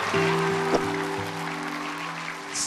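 A group claps together in steady, dense applause for a teacher, filling the whole moment at an even level, with a faint low hum running underneath at the start.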